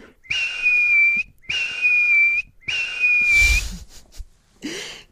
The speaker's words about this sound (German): Allein dessen, ja. dessen kleiner, zarter, luftiger Pfiff ist schon so süß.